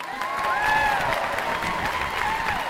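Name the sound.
applause sound effect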